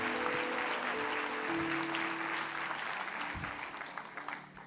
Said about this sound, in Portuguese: Aplaude a Deus por isso, em nome de Jesus. Aplaude mesmo.